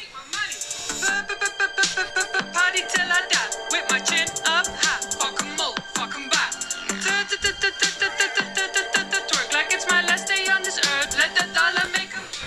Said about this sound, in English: so, so, so this is the shit. This is what passes as hip hop now, right? So watch.